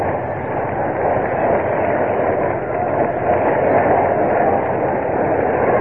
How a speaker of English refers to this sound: But Daley still in the dugout. And here he comes. A round of applause. First time before his new fans.